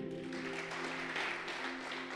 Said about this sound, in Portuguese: Você pode aplaudir?